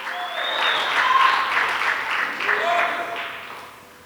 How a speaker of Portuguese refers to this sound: Isso, aplauda Ele, porque Ele merece.